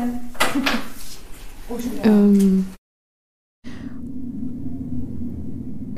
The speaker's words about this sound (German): Putzwagen, sorry.